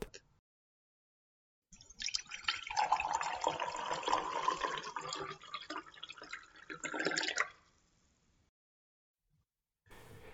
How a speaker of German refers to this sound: Es handelt sich hier um das im Vereinigten Königreich so verbreitete wie auch beliebte Teetrinken.